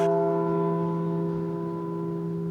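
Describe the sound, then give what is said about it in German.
A single large church bell, one of five new bells for Magdeburg Cathedral in Germany, strikes once and rings on, its deep humming overtones sustaining steadily and slowly fading, heard alone with no voices. “Fünf neue Glocken für den Magdeburger Dom”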